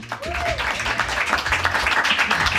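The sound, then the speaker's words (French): Sustained applause from an audience welcoming a guest musician, a dense wash of many hands clapping at a steady loudness for a couple of seconds, with a faint voice briefly audible near the start. “On peut l'applaudir.”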